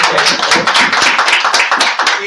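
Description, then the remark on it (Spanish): A crowd breaks into steady, enthusiastic applause for the director of Radio Maravillas, many hands clapping at once in a dense, crackling wash that stays loud for a couple of seconds. “Un aplauso para el doctor, un eh, aplauso.”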